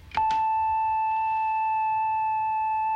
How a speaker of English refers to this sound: The simplest one of all is something that any lab technician must have seen at one time or another. It's called a sine wave. It's very smooth, very flute like.